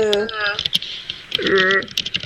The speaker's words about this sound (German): Das Tippen ist Gold. Nein, wenn, wenn ich jetzt tippe, macht mir die Zeichnung Abflug.